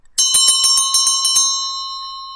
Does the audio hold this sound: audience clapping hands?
no